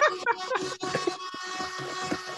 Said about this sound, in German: Der USB-Staubsauger, Leute.